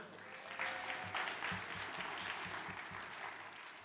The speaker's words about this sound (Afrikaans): Kom ons gee hande klap vir dit.